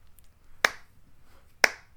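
A slow clap: two crisp, sharp hand claps spaced about a second apart, with the start of a third at the very end, over a faint low background and no talking.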